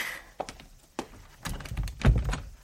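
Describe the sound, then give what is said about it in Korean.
A couple of sharp knocks lead into a heavier wooden thud as the door of a tiny room past the bathroom inside a shipping container swings shut, with some brief rattling, all fairly quiet with no voices. “샤워 금지 등 스티커가 붙은 화장실을 지나 쪽방으로 들어갔다. 문이야.”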